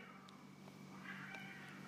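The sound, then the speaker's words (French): Faint meowing of the neighbours' cats, drawn-out and wavering, through a steady low hum; no one speaks. “J'entends les, chats de mes voisins.”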